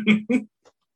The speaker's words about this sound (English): Okay, he's coughing right now. He'll be all right here soon.